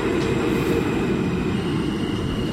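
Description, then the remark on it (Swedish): A new, air-conditioned subway train rumbles steadily and loudly, a dense low roar with a faint high electrical whine running through it. No one speaks. “Nu tåget dit. Det är alltså kullinjen de har ja. dragit upp hit.”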